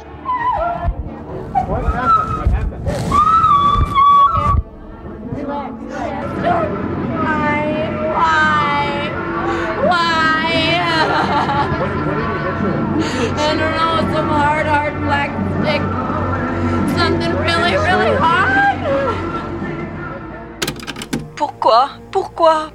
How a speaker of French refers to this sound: La suite, c'est une scène filmée au débeauté et instantanément entrée dans l'histoire des États-Unis. Pas de zaproudeur dans les environs, mais un caméraman qui a immortalisé ses cris qui glacent le sang.